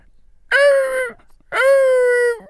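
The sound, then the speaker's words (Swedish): A person's voice imitates a fox's call with two loud, drawn-out, nasal wailing cries, the second one longer, separated by a brief pause, with no other sound around them. “Det är så här låter räven.”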